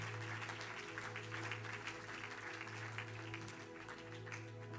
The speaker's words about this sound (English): You love your pastors. Go ahead and applause God for your pastors. Amen.